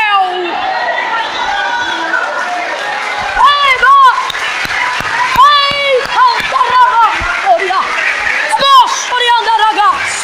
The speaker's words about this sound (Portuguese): Misture essas palmas com glória a Deus e aleluia.